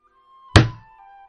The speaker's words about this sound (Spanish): Toda la cabaña se estremeció y Harry se enderezó mirando fijamente a la puerta. Alguien estaba fuera, llamando.